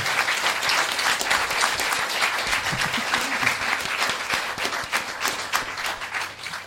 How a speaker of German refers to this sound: wenn nicht diese eine Person wäre, die das alles immer perfekt organisiert und einen, einen Sack Flöhe wie uns drei zusammenhält. Ein Riesenapplaus für